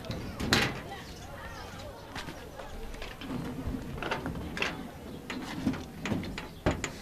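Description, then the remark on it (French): A rusty sheet-metal door clatters and scrapes open with several sharp knocks and rattles as a nurse on her morning rounds arrives to check a diabetic patient's blood sugar in Kaweni, Mayotte, over a steady outdoor background with faint voices and occasional bird calls. “Derrière une porte en tôle rouillée, elle vient vérifier la glycémie d'un patient diabétique.”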